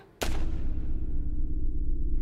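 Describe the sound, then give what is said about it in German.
A single sharp gunshot cracks out near the start at an airfield in Fürstenfeldbruck with helicopters and a Boeing, followed by a steady, loud low rumble that continues to the end with no voices. “Als diese beiden sich auf dem Rückweg zu den Hubschraubern befanden, fielen plötzlich einzelne Schüsse.”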